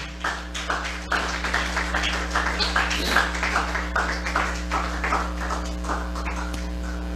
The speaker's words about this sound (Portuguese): Glória a Deus. Aplauda ao Senhor.